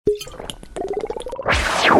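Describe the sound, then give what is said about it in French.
Someone drinks the last of a bottle: a quick series of wet plops and gurgles as liquid sloshes, ending in a breathy, airy rush as the bottle empties. “Mais quand l'heure du re re re re re re re re confinement a sonné, j'ai préféré démissionner en buvant la dernière gorgée.”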